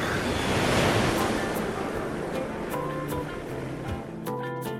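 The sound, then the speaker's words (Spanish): Ocean waves wash steadily onto the shore in a broad, continuous roar of surf, with a swelling break near the start, while faint tonal sounds drift in the background and no one speaks. “Bienvenido al mar, donde suspira el alma.”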